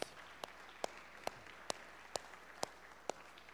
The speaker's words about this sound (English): Would you join me in giving them a Thanksgiving applause?